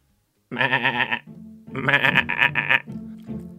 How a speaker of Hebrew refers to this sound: כן, הגיבורה שלי היום היא עז, והיא נמצאת איתי פה באולפן